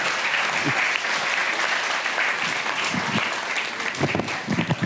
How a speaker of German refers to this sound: Das war sehr schön. Danke. Ein Applaus für Axel Petermann. Dankeschön.